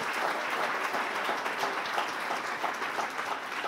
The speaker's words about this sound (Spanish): Si tú lo crees, dale un aplauso.